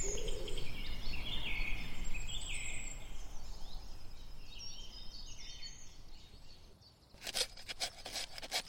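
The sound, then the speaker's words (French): Several woodland birds, woodpeckers, cuckoos and tits, call and sing in a forest, heard from a cabin terrace on a fine day, over a steady outdoor hiss, followed near the end by a short burst of rough, rhythmic rasping. “la terrasse de la cabane, on entend plein d'oiseaux. Il y a des pics, des coucous, des mésanges, tout un tas d'oiseaux.”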